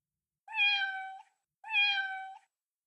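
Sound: cat meowing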